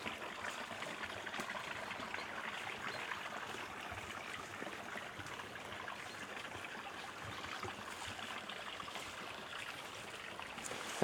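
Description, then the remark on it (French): A stream of running water in open plain country beside a path, near forest and fields, in fine weather, rushes steadily in a continuous bright babble that holds an even level throughout with no voices present. “Je me trouve actuellement en pleine plaine, sur le chemin, la forêt, les champs, le beau temps, un ruisseau, une cascade.”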